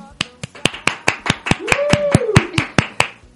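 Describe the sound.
Applause on the program Famagoleando: clapping in a steady, brisk rhythm, about fourteen sharp, crisp claps evenly spaced over a few seconds, with a brief voice sounding faintly beneath them partway through.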